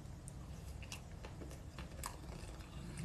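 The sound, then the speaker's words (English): Crisp crunching and chewing as someone bites into food, with irregular crackly bites scattered over a steady low rumble and no talking. “You know, at the beginning of every video, I discuss what I'm eating, so you have to wait till you watch watch the beginning of it again.”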